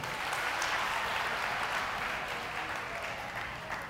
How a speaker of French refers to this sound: Merci, applaudissez nous.